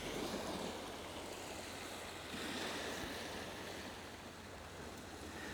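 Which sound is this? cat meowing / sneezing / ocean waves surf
ocean waves surf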